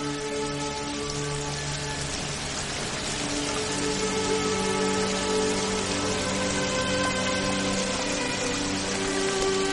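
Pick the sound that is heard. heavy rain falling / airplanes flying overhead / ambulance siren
heavy rain falling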